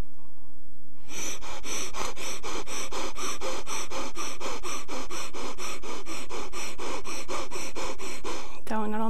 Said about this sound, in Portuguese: Então deve ser uma respiração realmente rápida, fugaz, e, eh, com muita energia. E eu vou fazer aqui só um bocadinho para, para vocês perceberem a força e a intensidade que isto pode ter.